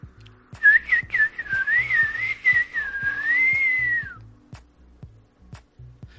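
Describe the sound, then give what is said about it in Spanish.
A single warbling whistle imitating a little bird's song, rising and wavering for a few seconds before sliding down, with soft, regular low thumps continuing underneath and after. “Vamos a escucharlo cantar.”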